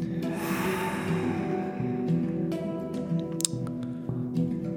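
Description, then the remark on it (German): A long, deep breath out during a yoga session, a breathy rush that fades over a couple of seconds, over a steady, soft sustained musical drone with no talking. “Wir spüren unsere Körper von innen heraus und atmen einmal tief ein und wieder aus.”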